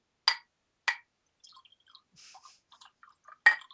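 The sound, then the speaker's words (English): Whiskey poured into a glass: a few sharp clinks of glass, with soft, scattered gurgles and drips of liquid between them. Fairly quiet, with no talking. “Nice glass of whiskey.”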